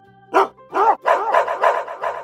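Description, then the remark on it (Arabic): Several village dogs bark at a strange bear to scare it away, in a quick, overlapping series of sharp barks, about six bursts packed into two seconds with no talking. “لكن كلاب القرية شموا ريحة الدب الغريب وجريوا عليه من كل مكان ومن كل جنينة يخوفوه علشان يمشي وفعلا خاف الدب الكبير جدا جدا من الكلاب”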